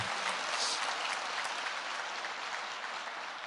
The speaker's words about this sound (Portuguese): Amém. Pode aplaudir, irmãos, amém. Glória a Deus, glória a Deus.